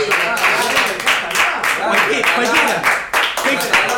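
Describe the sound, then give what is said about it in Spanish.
Steady, dense applause for a show's co-host fills all four seconds, a loud continuous wash of clapping with crowd voices and cheering mixed in underneath. “Pido un fuerte aplauso para mi co-conductor grande,”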